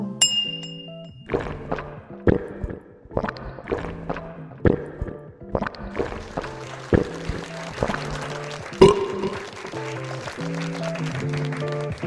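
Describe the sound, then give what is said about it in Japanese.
Glasses of Shine Muscat sparkling wine, made at the foot of Mount Fuji, clink together in a toast in a quick series of bright, ringing taps, one after another, then the clinks blur into a busier wash of clapping and crowd noise. “甘さすっきり喉越し爽やかなシャインマスカットのスパークリングワインでございますそれでは乾杯”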